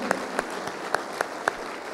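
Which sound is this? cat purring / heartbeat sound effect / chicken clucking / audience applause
audience applause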